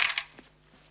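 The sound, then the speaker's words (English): Small metal screws clink together as they are picked up: two quick, bright jingling taps, then a faint rattle that trails off into quiet. “I'm picking up the screws.”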